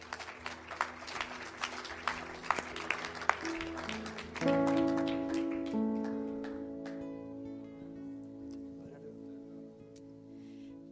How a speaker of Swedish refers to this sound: Ge dem en varm applåd igen.